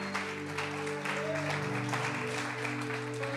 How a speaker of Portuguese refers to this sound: Aplaude a Jesus, porque é para a glória dele. Aleluia.